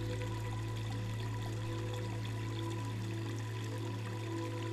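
Water trickles and flows steadily, a continuous bubbling wash with a low hum beneath it and no voices.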